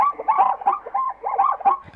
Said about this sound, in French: C'est cousin du cheval en Afrique. Oui, c'est un ah. zèbre. Ah ouais, ah ouais. ouais c'est assez ah. étonnant comme bruit en vrai.